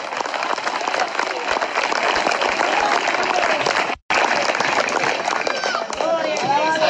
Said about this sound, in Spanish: Parece que le iba a dar un aplauso al señor, o solo es el intento. Déselo fuerte, pero fuertísimo.